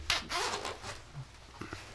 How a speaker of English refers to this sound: Uh, so I actually have a Terror Threads uh, raglan on today. Uh, it's a little bit cold, so let's see um, that thing. Yeah, it's the uh, here comes a zip.